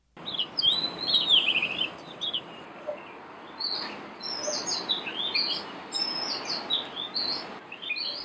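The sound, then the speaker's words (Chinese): An oriental magpie-robin sings a varied, melodious song of bright whistles, rising and falling trills and short chirpy phrases, continuing steadily for several seconds over a soft hiss, with no voices. “哇，是不是很动人的声音呢？不愧是要拿来当做观赏鸟的雀曲。”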